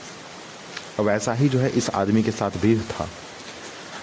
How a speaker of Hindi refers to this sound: background में आपको आवाज़ सुनाई दे रहा होगा बारिश की